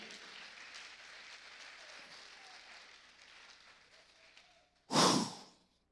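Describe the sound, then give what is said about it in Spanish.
A crowd claps hands for the king in a steady, dense patter for several seconds, before a sudden loud, breathy burst cuts in near the end. “Dale palmas al rey.”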